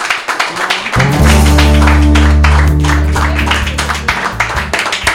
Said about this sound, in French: Je pense qu'on peut applaudir notre invité, s'il vous plaît.